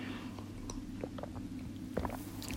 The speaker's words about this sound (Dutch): Ik zal even een slokje water pakken intussen.